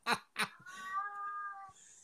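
A cat meows: two short chirpy calls followed by a longer, drawn-out wavering meow, clear and fairly loud with no one talking.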